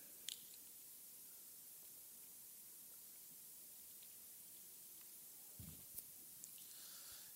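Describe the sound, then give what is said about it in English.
A preacher quietly drinks water during a church sermon, with faint mouth clicks and one soft gulping swallow near the end over a steady background hiss. No one speaks. “Because some of us, church, let me drink some water, amen.”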